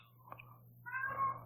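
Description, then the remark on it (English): A domestic cat gives a single drawn-out meow that rises after a brief chirp, moderately loud, with a low steady hum underneath and no talking. “That's my cat. That's my cat.”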